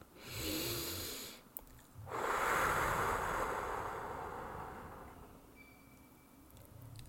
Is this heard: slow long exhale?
yes